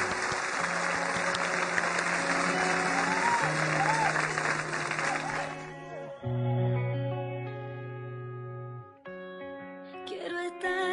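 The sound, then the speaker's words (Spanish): Loud, dense crowd applause welcoming a guest during a Blue Radio Colombia Facebook Live fills the first five seconds over sustained musical tones, then fades out, leaving the instrumental music playing on its own. “Estamos haciendo un Facebook Live para que recibamos con un fuerte aplauso”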